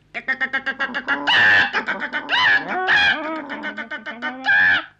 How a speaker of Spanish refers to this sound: La gallina cacarea.